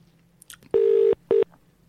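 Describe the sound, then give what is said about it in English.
Two loud electronic telephone tones sound in quick succession, a longer steady beep followed by a short one, with a faint low hum underneath and no talking. “If I missed a phone call, I'll give you a call back.”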